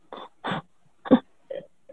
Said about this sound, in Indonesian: batuk lagi lu